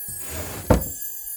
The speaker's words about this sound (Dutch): Daarna stomp ik hem gewoon weer terug en sluit ik de kast.